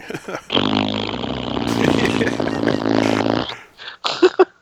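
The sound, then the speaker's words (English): A voice blows a loud, sustained raspberry imitating a fart, a buzzy sputter lasting about three seconds, followed by a few brief, choppy bursts. “Fart noises.”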